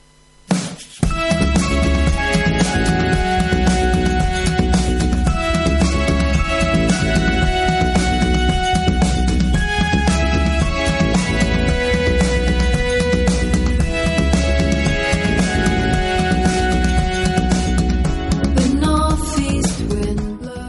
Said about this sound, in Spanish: Ha sacado cuatro discos de delicado folk pop y su último trabajo suena así.